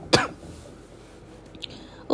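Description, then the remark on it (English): A single sharp, throaty cough bursts out near the start, fairly loud, followed by quiet room tone and a couple of faint clicks. “I keep coughing.”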